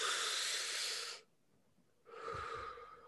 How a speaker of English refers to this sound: So even me putting my fingers to my mouth, it it's telling my brain that okay there might be something at my mouth and i'm holding it and i'm blowing it out i'm blowing the smoke out but none of that is there